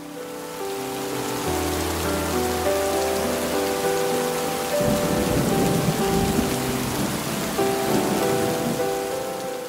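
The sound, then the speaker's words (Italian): Steady, heavy rain from a thunderstorm hisses throughout on a city street with slow traffic, with a low thunder-like rumble swelling midway, while soft sustained musical tones play underneath; no one speaks. “Il traffico era lento rallentato più da una sensazione di rilassamento di alcuni automobilisti che dall'esplosione del temporale.”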